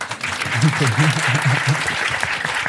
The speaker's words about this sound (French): Ouais, vous pourriez applaudir. C'est vite, sinon elle nous tape.